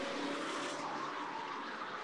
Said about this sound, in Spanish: El taxista aceleró bruscamente.